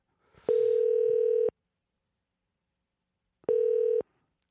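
telephone dial tone

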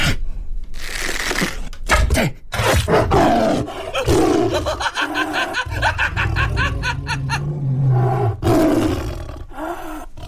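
tiger roaring

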